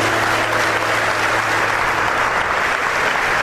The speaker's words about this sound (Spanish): Un aplauso a la Virgen María.